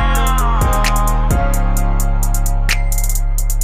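A loud hip-hop beat plays: deep, sustained bass notes under crisp, rapid hi-hat clicks in a steady rhythm, with no vocals in this stretch.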